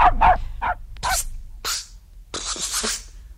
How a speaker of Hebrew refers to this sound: פעם אחת בחזירתי מביתו של רבי, שמעתי כלב נובח.